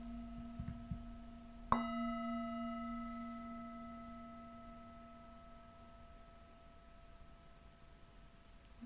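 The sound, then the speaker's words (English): A singing bowl is struck once to end the practice, its layered metallic tones humming and shimmering as they fade slowly over several seconds. No one speaks. “Just resting the breath, keeping your attention on the breath as you listen for the singing bowl to end our practice.”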